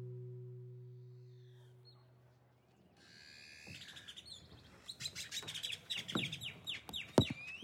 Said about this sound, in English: It was a beautiful place, overlooking the lake. Noisy white birds in the bushes and wooden boats on the water.